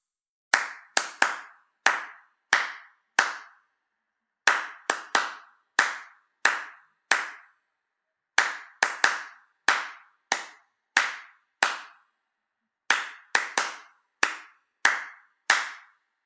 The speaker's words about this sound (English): I'm sure you know the happy birthday song, right? Yes. yes. Well, this time I will clap and you need to pay attention and listen to the familiar pattern of my claps.